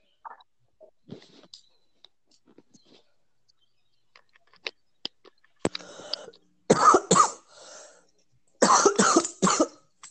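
Someone coughs hard in two short fits, each made of two or three harsh bursts, after a stretch of faint clicks and near silence.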